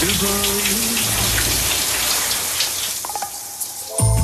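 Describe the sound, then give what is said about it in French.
A steady hiss of shower water runs throughout, with faint tonal bursts at the start and a louder one at the very end breaking through the spray, as a French male singer sings in his shower. “Bien sûr que vous allez me deviner de qui il s'agit un chanteur français chante sous sa douche.”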